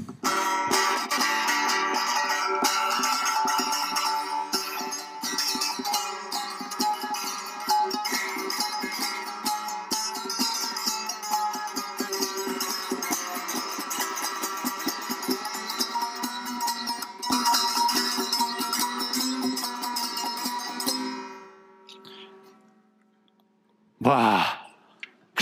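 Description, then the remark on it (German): A seven-stringed Turkish saz, an oriental instrument, plays a busy, bright, twangy melody with ringing strings for about twenty seconds, then fades out, followed by a brief sliding sound. “Also die Saas, ein türkisches Instrument, orientalisches Instrument und die hat sieben Seiten.”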